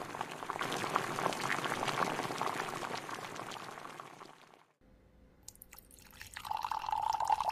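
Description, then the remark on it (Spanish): Water bubbles at a steady rolling boil for several seconds, stops, and after a brief pause a stream of hot water pours into a cup for an infusion, its pitch rising as it fills. “Creo que ya el agua.”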